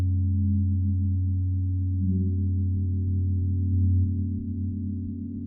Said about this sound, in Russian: когда каждый удар гонга уходит в бесконечность.